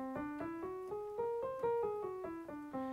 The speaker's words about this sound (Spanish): Eh, la escala de tonos enteros es mucho más limitada que las pentatónicas, porque solo crea dos tipos de acordes. Suena así